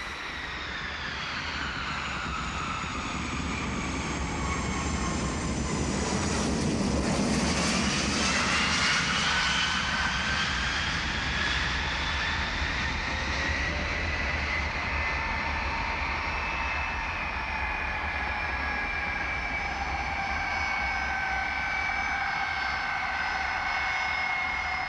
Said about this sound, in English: When the plane landed at John F. Kennedy Airport and taxied over to where you got off the plane, the doors opened and everyone just started getting off, and we kind of just milled in with the crowd getting off the plane.